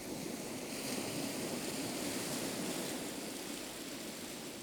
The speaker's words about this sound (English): And in Dover Beach, Matthew Arnold wrote that the sea is calm tonight, but you can hear its melancholy, long withdrawing roar. This seascape was recorded by … for ….